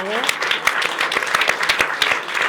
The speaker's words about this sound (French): Et je tiens à remercier, alors évidemment, toute l'équipe, comme d'habitude, de Bistro Liberté. Tout d'abord, on va les applaudir.